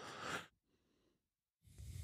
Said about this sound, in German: Ich musste da gerade mal ein wenig husten.